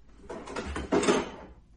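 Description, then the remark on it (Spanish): A refrigerator door opens as someone looks for lemons inside, with a rough, rustling scrape that swells midway into a louder burst, then fades out after about a second. No voices are heard. “Está buscando, está buscando eh, limones en, el, en la nevera.”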